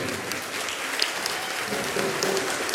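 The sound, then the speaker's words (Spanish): Steady audience applause at a live show as Yolo is presented, a dense wash of many hands clapping at an even, sustained loudness with no one speaking over it. “Que nos va a un aplauso, por favor.”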